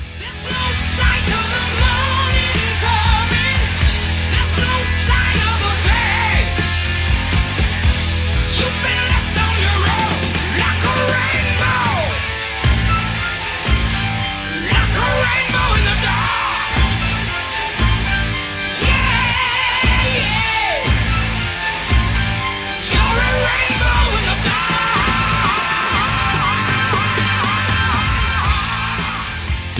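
A heavy metal song plays loud and steady, with a singer's high, sustained scream soaring over dense distorted guitars and pounding, rhythmic drums throughout.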